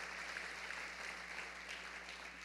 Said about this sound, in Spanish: Eh, hermano amado, démosle ese aplauso al Señor